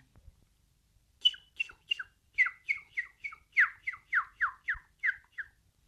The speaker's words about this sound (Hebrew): היו למלך שלוש ציפורים, כנרי, תוכי ופשוש קטן.